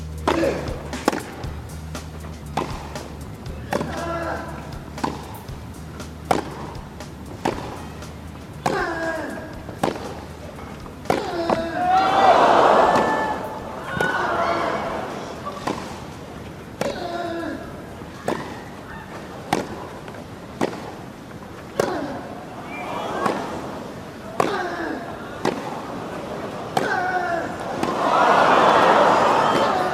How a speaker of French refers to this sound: Attachez vos ceintures, la suite est renversante. Un échange de 24 coups façon grand 8 à vous déclencher des hauts-le-coeur et des cris d'effroi, surtout quand une balle de Nadal touche la bande au filet.